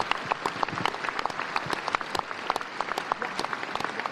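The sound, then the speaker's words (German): Dense, steady applause from an enthusiastic audience at the Festung Kufstein in Kufstein, many hands clapping at once in a continuous crackling wash, loud, with no voices standing out, together with the sound of Der Vogelhändler. “Das betont auch Emanuel Preauer, untermalt hier vom Klang des Vogelhändlers und eines begeisterten Publikums in Kufstein.”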